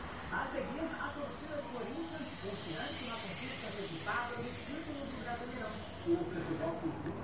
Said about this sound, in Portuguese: E eu vou mexer esse brinquedo em outras direções. Eu vou afastar ele um pouquinho, tá acabando aqui a corda, eu vou dar a corda de novo. Eu vou afastar ele e vou voltar.